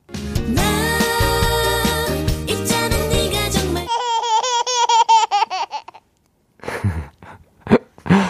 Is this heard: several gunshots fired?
no